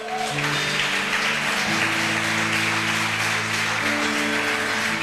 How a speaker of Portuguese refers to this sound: Você pode aplaudir a Jesus bem forte?